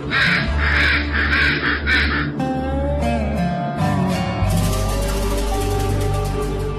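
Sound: crow cawing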